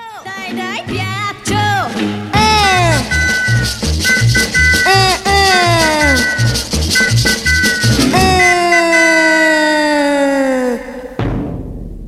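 An upbeat Italian pop song with a female vocal, her voice sliding through bright, swooping notes over a steady, bouncy bass rhythm, played loud and continuous before cutting off abruptly near the end.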